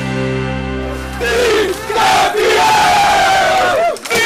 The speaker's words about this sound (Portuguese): Esta é a festa dos jogadores do Sporting já na sala de imprensa, quando o treinador Nuno Dias se preparava para falar aos jornalistas. Os jogadores invadiram a sala e regaram de água e gelo a equipa técnica e até os profissionais da comunicação.